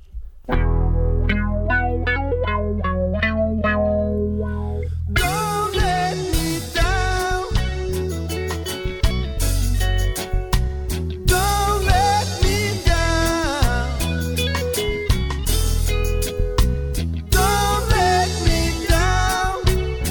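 A reggae song plays loud and close, opening with a few seconds of sparse picked guitar before the full band drops in with a heavy bassline and a steady, choppy groove.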